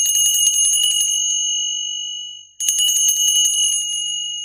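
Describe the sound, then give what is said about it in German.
Two bright bursts of altar bells rung by altar servers in church during mass, a cluster of small high-pitched bells shaken rapidly, ringing out alone, with a shimmering tone that lingers briefly between the shakes. “Oh, schon wieder Glocken.”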